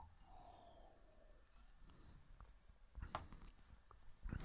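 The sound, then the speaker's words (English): Someone takes a sip of water, with soft breathing, a few wet mouth clicks and gulping sounds, and a louder slurp or swallow near the end. No one speaks. “Let's take a sip of water here.”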